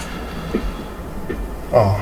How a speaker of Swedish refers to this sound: nu kom tåget. Nu. Där är tåget i bakgrunden.